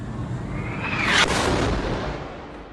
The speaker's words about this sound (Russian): На этой неделе в больнице Аля Хли, расположенной в секторе газа, произошел мощный взрыв.